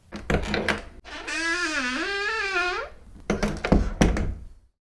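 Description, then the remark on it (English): A door rattles and thumps, swings open on a long, wavering hinge creak, then bangs and clatters shut, fairly loud with no talking; a radio sound effect like those of CBS Radio Mystery Theater. “A door opening and closing.”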